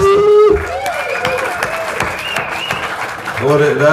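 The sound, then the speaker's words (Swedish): A small group claps in a loose, scattered burst of applause lasting a few seconds, with voices calling out and cheering over the clapping. “Applåder!”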